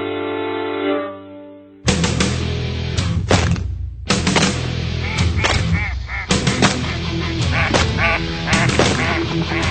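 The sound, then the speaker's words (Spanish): A brief steady tone opens, then a loud, dense chorus of ducks quacking and honking fills the rest, harsh overlapping calls with sharp bursts throughout. “Somos patos.”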